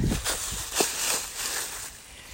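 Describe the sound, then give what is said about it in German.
Quick, crunching footsteps of a person running through dry fallen leaves, a steady crackling rustle with a few sharper crunches, moderately loud, with no voices. “Geht durch den Laub, muss man rennen.”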